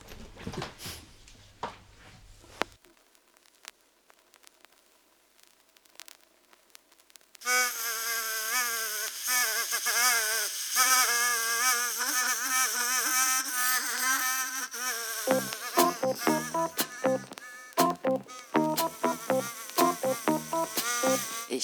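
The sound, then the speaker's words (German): A few quiet seconds, then a loud mosquito buzz whines in, starting far off, with a wavering high pitch, turning into rapid pulsing bursts toward the end, heard while lying in bed. “Und da gibt es von Lane Mücken nerven Leute für die Familien.”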